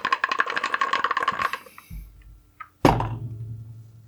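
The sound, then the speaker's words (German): Dice rattle rapidly for about a second and a half, then a dull thump and a sharp clatter as they land on a hard surface; a die is being rerolled in a game. No one speaks. “So, ich lasse mir die, die Doppel-Null für den Zehner lasse ich, also würfel ich den vorne neu.”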